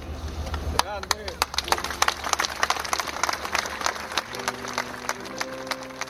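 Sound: applause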